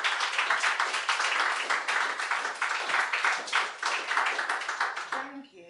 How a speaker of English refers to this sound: So I think she deserves an extra round of applause.